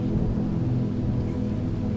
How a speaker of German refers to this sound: Die ersten Regentropfen fallen auf die Wasseroberfläche. Erst wenige, dann immer mehr, bis ein Strom von dicken Tropfen unablässig auf den See trommelt.